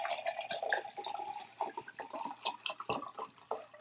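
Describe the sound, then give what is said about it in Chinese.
Room-temperature cooled boiled drinking water pouring steadily into a glass measuring cup, 400 cc, to make caramel pot-boiled milk tea: a continuous splashing trickle with bright, uneven gurgles and small drips throughout, moderately loud with no talking. “好，那另外一个玻璃量杯是装我们的生饮水啊，就是可以喝的凉开水、室温的水。我们要装四百”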